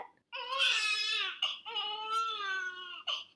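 A baby's loud, wailing cry in two long sustained bursts, each ending with a sharp gasping breath, with no other sounds.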